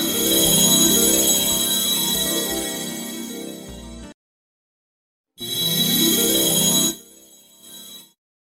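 A bright, chiming Christmas song, a song, plays steadily without talk, cuts to silence for over a second, then resumes briefly before fading out.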